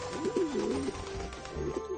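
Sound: pigeons cooing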